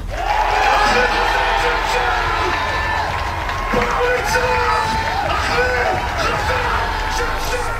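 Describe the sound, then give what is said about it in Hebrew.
A large crowd of metal fans screams and shouts together in a sustained, loud roar of many voices, dense and continuous throughout with rising yells layered on top, a scream of release and anger over the loss of two members of their community. “ובזמן שאנחנו חושבים וחושבות על בלדות שקטות ומרגשות לזכרם של אהובינו, קהילת המטאל העדיפה אתמול לשחרר צעקה של פורקן וכעס על אובדן שני הג'ינג'ים שלה,”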